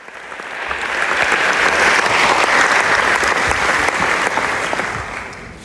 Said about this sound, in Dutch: En op een gegeven moment kwam er een vrouw in een zwarte tuniek het podium opgelopen. En ze werd echt onthaald als een, als een rockstar. Eh, daverend applaus.